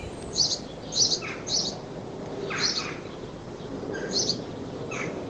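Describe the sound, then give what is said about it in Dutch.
House sparrows chirp in short, bright bursts, half a dozen or so calls spaced irregularly, over a steady outdoor hiss with no voices; recorded in Kortenhoef. “Ah, gezellige mussen.”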